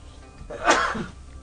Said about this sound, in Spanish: Ay, perdón, me tocó este, el estornudo.